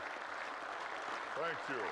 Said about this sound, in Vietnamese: Cảm ơn các bạn về tràng pháo tay này, nhưng chắc tôi phải tiếp nhận nó trong sự cầu nguyện và khiêm nhường.